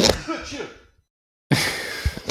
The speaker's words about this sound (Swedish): Eh, Shit. Nu nyser jag igen då. Hepp, hepp.